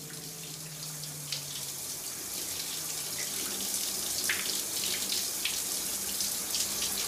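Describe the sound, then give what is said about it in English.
Shower water runs steadily throughout, a continuous hissing spray with small splashy flickers, moderately loud, with no voices. “Taking a shower.”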